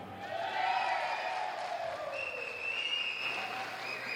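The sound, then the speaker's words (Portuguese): An enthusiastic crowd of supporters from Americana cheers and applauds continuously as they are given the prize for the liveliest supporters, a dense wash of clapping mixed with high shouts and whoops that stays loud and sustained throughout. “E o prêmio de torcida mais animada vai para a Americana.”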